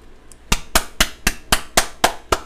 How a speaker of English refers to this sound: There we go. There we go. The golf clap.